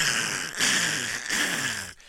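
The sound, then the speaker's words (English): A voice imitates drilling into shale for fracking with a sustained, gritty, buzzing groan, fairly loud, pulsing in three rough surges over about two seconds before cutting off. “That's the sound of digging into shale.”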